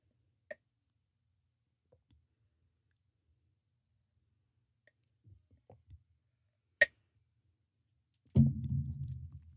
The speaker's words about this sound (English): Okay, I need a break to sip my smoothie.